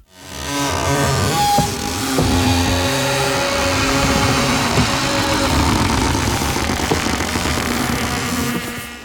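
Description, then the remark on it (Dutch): A steady, buzzing drone like a small moped engine, produced with Fabriano Academia paper of 160 and 200 grams, wavers slightly in pitch and runs continuously for about nine seconds, fairly loud, with no talking. “De Brommer. Fabriano Academia papier 160 en 200 grams.”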